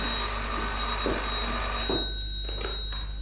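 telephone bell ringing

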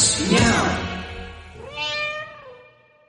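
cat meow

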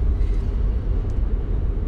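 inside a car

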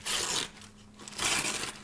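bag being opened

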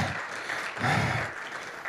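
audience hand clapping

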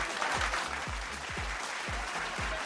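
applause

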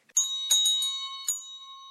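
bell ringing

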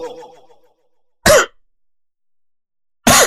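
cough

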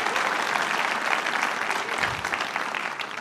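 audience applause

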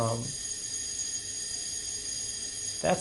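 fire alarm ringing

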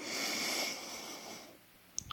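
slow deep breath in

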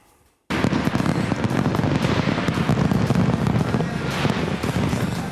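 fireworks exploding

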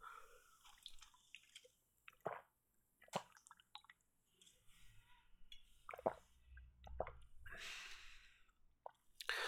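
sipping a drink

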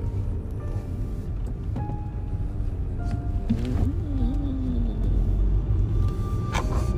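car approaching and passing

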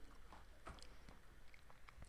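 crunching a potato chip

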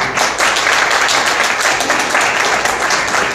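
audience applause

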